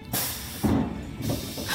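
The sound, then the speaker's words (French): A train door opens as the train stops at a platform, with a loud pneumatic hiss, a broad rushing burst of air followed by a low mechanical thud and rumble as the door slides, then a second softer hiss at the end. “Le train s'arrête enfin et la porte s'ouvre.”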